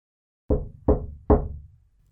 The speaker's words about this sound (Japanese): 失礼しますドアをノックしそれを開くと